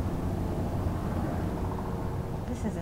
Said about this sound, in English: See, he's just circling. Partway into my interview with …, the Tsleil-Waututh counselor, a helicopter owned by security hired by TMX to patrol the area was hovering nearby.